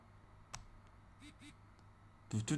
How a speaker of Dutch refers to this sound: Ik druk het schakelaartje één keer naar links, zodat hij in de standby-modus staat, dan, trilt hij ook eventjes kort. Ga je hem terug uitschakelen en terug inschakelen. Dan hoor je het misschien als ik het dicht bij de micro hoor.